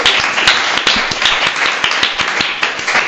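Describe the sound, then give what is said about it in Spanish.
Steady applause from a small group, dense overlapping claps with a few sharper individual hand claps standing out, fairly loud and continuous for about three seconds with no talking. “La historia es verdadera, es eh. correcto. Un aplauso.”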